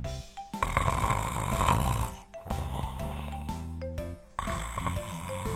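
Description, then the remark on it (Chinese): Three long, loud snores from a grandfather asleep follow one another in a steady rhythm, each a low, rattling rumble with a droning tone, separated by short pauses for breath. No one speaks. “哥哥，爷爷又睡着了。”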